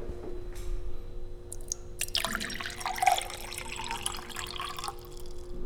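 Cold water pours in a steady, splashing stream for about three seconds, preceded by a faint drip or two, with a low constant hum underneath and no talking.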